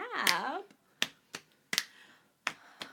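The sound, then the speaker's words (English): A short vocal sound opens, followed by five crisp finger snaps in an uneven rhythm, each a sharp, bright click that fades quickly, with quiet gaps between them. “Oh, a snap.”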